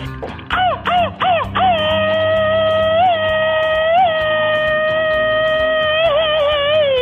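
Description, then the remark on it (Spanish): A girl's rapid-fire machine-gun scream closing a segment: three quick staccato yelps, then a long, piercing sustained shriek that wavers and pulses for several seconds, loud over a low background hum. “Niña, despide la sección con el grito ametralladora.”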